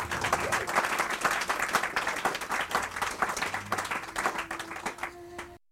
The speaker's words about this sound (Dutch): Dames en heren, een applaus voor Lex Bolmeijer.